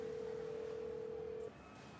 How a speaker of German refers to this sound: Von einer Telefonzelle aus ruft er Bacardis Betriebsleiter in Nassau an.